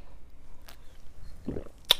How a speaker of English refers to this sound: I'm taking a sip of the lemonade.